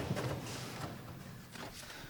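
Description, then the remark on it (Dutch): An aircraft seat is folded up, giving a few soft clunks and scraping rustles spread over a couple of seconds, fairly quiet, with no one speaking. “Kijk, klappen we hem op.”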